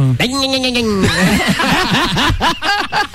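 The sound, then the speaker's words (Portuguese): A man's voice mimics a two-stroke motorcycle engine, holding a buzzing note and then revving it in quick, rising-and-falling bursts, loud, with a bit of laughter mixed in. “Como é que é o barulho da dois tempos?”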